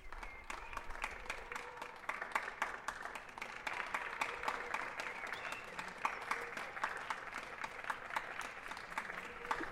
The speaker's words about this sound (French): Les applaudissements euh, se terminent lentement dans la cour. On voit encore euh, quelques voisins qui qui applaudissent euh, doucement